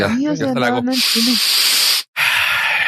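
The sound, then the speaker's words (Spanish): A brief voiced sound gives way to a long, airy breath in, a short pause, then a loud breath out that trails off at the end. “ay, güey, bueno, voy a respirar pinche y profundo.”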